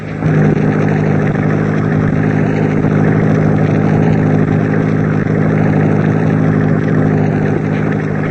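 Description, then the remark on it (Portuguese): A car engine runs steadily and loudly throughout, a continuous droning rumble with a low humming tone and no voices or pauses. “Aquele carro saindo do atalho. E, e parece que está desgovernado.”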